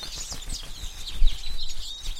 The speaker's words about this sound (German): Ah, es sind die Spatzenkinder in ihrem Nest. Sie haben scheinbar großen Hunger.